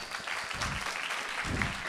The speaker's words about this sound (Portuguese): Uma salva de palmas, pá.